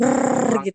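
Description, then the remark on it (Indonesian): A person imitates running water from a tap with a steady, rolled, buzzing "brrr" held for about half a second, followed by a brief spoken word, fairly loud. “Suara air maksudnya keran air gitu.”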